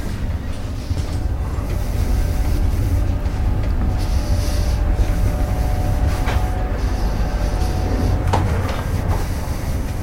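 Steady low rumble and rattle of a moving passenger train heard from inside a carriage, with a few sharp clacks and metallic knocks over the continuous roar. No one speaks.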